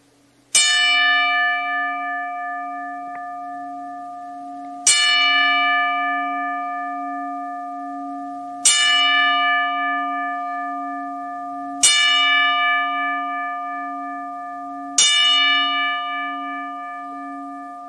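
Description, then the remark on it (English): A bell tolls slowly and solemnly as a ten-bell salute in tribute to wrestler Jay Briscoe, struck five times at steady intervals, each bright metallic strike ringing on and fading into the next. No voices accompany it. “We here at Cards Up Exchange would like to show our respect for Jay Briscoe with a 10 bell salute and a moment of silence to follow.”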